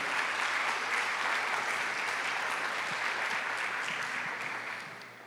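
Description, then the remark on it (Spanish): An audience applauds steadily, a dense wash of many hands clapping at once that holds for several seconds before tapering off slightly at the end. The applause is offered to the Lord during preaching. “Alabe el nombre del Señor. un aplauso al Señor.”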